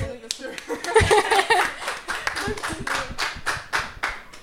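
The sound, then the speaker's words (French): Audience applause for interview guests and the project they are presenting, a dense patter of many hands clapping steadily for a few seconds, with some voices and a bit of laughter mixed in. “La mise en place de cet applaudissement était un peu longue.”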